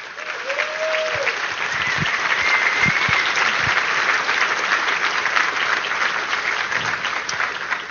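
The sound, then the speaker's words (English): Sustained applause from a large audience, a dense wash of clapping that stays steady and loud throughout, with a few scattered cheers and whistles rising above it. “Please, a big round of applause for you and everyone around you here.”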